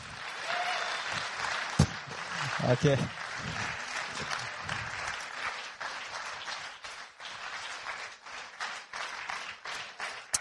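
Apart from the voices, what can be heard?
audience applause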